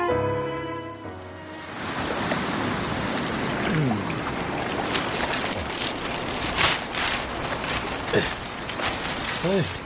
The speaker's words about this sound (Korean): 비가 내리는데요. 아직 많이 오는 건 아니라서 저는 그냥 있다가 비 많이 오면 그때 입을래요.